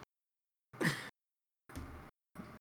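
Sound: yawning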